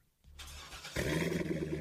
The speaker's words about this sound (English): You hear that? That's the sound of America's only sports car. That's right, it's a Corvette. But not just any Corvette. It's your Corvette.